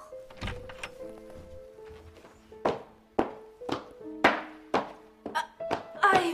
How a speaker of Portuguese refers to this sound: Pare de socar a porta! Tenha calma, meu filho, por favor.